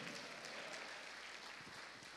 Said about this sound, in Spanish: Dele palmas al rey. Déselo fuerte al rey, a su nombre.